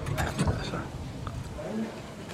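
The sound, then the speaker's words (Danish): Crisp crunching from someone biting into crispy fish skin: a quick cluster of crackly bites at first, then softer chewing that fades into a quiet background. “Prøv at høre det der øh, knasende fiskesvær.”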